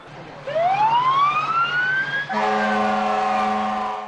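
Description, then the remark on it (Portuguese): A fire truck siren winds upward in a long rising wail, then gives way to a steady, loud horn-like blare with a low engine rumble underneath, dominant with no talking. “O Kalel, de 5 anos, sonhava em passear em um carro dos bombeiros.”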